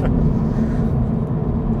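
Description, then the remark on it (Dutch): A steady, low road rumble from a car driving at 70 on the motorway, a dense and constant drone with no breaks or voices, like riding inside the vehicle. “En dat is een beetje belachelijk rijden 70. Op de autobaan.”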